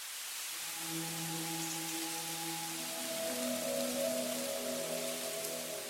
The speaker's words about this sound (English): You look around at the sea of spindly white trunks and listen to the building rattle of the flapping leaves that give the quaking aspen its name.